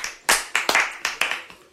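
Brief applause: a quick run of about seven sharp, bright hand claps in a slightly uneven rhythm, fairly loud, with no voices over it.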